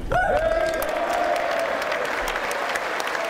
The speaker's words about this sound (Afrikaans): Vir etlike minute kon Zelensky nie praat oor die daverende applous nie en toe dit bedaar die volgende woorde.